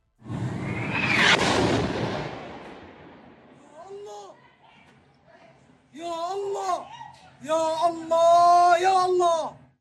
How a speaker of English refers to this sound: Last night, at just around 7:30 p.m. local time, the Al Ahli hospital in northern Gaza was hit by a missile. This footage, verified by the Washington Post, shows the moment the projectile struck.